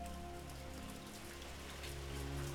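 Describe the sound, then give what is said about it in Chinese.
Steady, dense rain pattering on a surface in the middle of the night, a continuous busy hiss of countless drops with a low hum underneath, unchanging in loudness throughout, with no voices. “半夜里听见繁杂的雨声”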